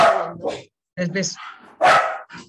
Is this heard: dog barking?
yes